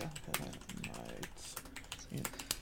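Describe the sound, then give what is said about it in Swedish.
Irregular clicks of someone typing on a computer keyboard, a run of crisp keystrokes with short pauses between bursts, with faint voices or room noise underneath. “Jag ska bara skriva rätt här.”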